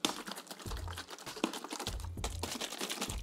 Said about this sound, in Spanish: No la ven, pero aquí tengo mi botella de agua. Entonces, este, mire, miren, ahí va el sonido.